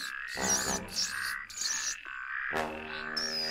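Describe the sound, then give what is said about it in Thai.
A little frog by a stream at the edge of a forest croaks repeatedly and loudly, its raspy, pulsing calls following one another in quick succession with no voices present. “หนูแก่ต้องการที่จะข้ามไปยังฝั่งตรงข้าม จึงเข้าไปขอความช่วยเหลือจากกบตัวน้อยที่ริมลำธาร แล้วก็เอ่ยขอให้เจ้ากบพาข้ามลำธารด้วย”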